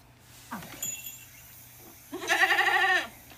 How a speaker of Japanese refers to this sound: ちょっと僕の知り合いのヤギの声を聞いてもらいましょう。はい、見事ですね見事に点線になってますよね。あのこの「めー」ってこの点線になるわけですね。もう一回聞きましょうかこれあのヴィンカちゃんっていうあの知り合いの飼っているヤギなんですが。